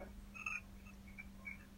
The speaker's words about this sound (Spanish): Esos son todos los sapos de la laguna que tengo al frente, una laguna espectacular que me levanto todos los días y me la quedo mirando.